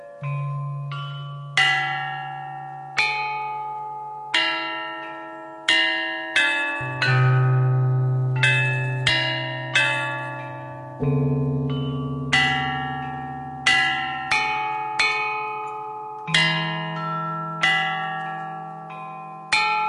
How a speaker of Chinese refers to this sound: 编钟的音节相当于现代国际上通用的 C 大调，音域跨越五个半八度，只比现在的钢琴的高低音部各少一个八度，中心音域十二个半音齐全。